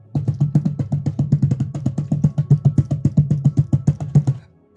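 A rapid, steady series of mechanical clicks and clacks as several different locks on a door about seven feet tall unlock themselves one after another, starting towards the top of the door, fairly loud with a hollow knocking body, continuing for several seconds before stopping.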